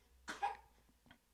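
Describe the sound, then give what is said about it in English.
A man coughing while eating in the background gives a single harsh cough, followed by a softer throaty catch about half a second later, with quiet room noise around it. “Sorry if you can hear producer two in the background have a little cough fest as he's eating.”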